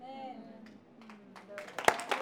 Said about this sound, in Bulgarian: О, знам, че не е хубаво да се пляска тук, но пляскай, пляскай.